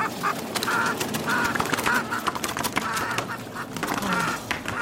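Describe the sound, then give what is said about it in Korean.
A few chickens flap their wings at the sound of a running machine, in a flurry of quick rustling bursts mixed with repeated squawking calls, loud and busy throughout with no one speaking. “기계 돌아가는 소리에 오울개 몇 마리가 푸드덕댔다.”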